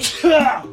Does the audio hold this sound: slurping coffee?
no